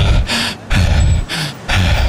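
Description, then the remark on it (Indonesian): Heavy, loud panting: four rough, breathy gasps in quick succession with only brief pauses between them, like someone catching their breath after exertion. No one speaks. “Uang 10 kilo ini masa juga terengah-engah sih beli itu.”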